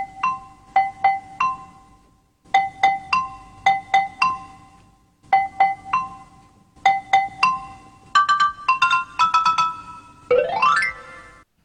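Bright synthesized xylophone notes, made as a replica of a xylophone with an electronic shake added to each sound to imitate the mallet's hammer noise, struck in quick melodic phrases, each with a crisp mallet click, separated by short pauses and ending in a rising glissando sweep; no talking.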